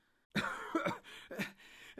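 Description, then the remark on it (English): A voice acts out a person who has just been hauled from water onto a riverbank, waking and coughing and spluttering: three rough, wet bursts in quick succession, fairly loud, with raspy breathy trailing between them and no words spoken. “Almost at once he woke and coughed and spluttered.”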